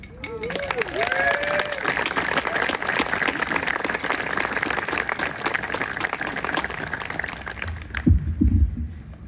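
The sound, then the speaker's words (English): A crowd at a memorial event gives a round of applause for the absent Mr. Dennis Gallagher: steady, sustained, dense clapping with a few whoops rising above it, lasting about eight seconds before cutting off abruptly into a brief low rumble. “And maybe we can offer him a round of applause wherever he is.”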